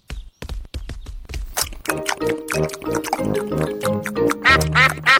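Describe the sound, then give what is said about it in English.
A few brief splashy clicks, then several ducks quacking loudly in rapid, overlapping nasal bursts that keep going to the end. “Oh no, we forgot to leave any for the ducks.”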